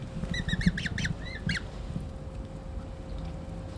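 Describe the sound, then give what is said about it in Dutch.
A cluster of high, thin piping calls from Eurasian coot chicks in Amsterdam, several quick peeps in the first second and a half, over a low rumbling outdoor background with no voices. “Het zijn dus de jonkies die we horen, hè?”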